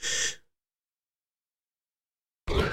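human body sound, yawn

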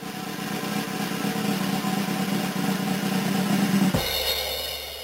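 sound effect, drum roll

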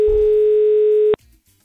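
signal or alarm, telephone call tone

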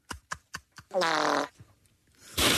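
human body sound, fart

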